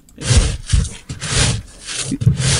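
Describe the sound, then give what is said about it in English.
A digging sound effect made of about five rough, rasping scrapes, each opening with a low thud, repeating at an uneven rhythm. It is fairly loud and has no talking over it. “Oh, yeah, that's him digging for the. this doesn't sound like digging.”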